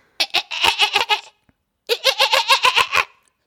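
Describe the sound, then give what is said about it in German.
A person's voice imitates a French bulldog with two loud bursts of rapid, stuttering, bleat-like grunts, each about a second long, separated by a brief pause. “ich habe ja eine französische Bulldogge und die machen Geräusche, wie sie ja keine Hunde machen”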